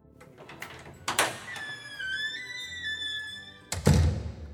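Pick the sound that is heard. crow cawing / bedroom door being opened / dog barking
bedroom door being opened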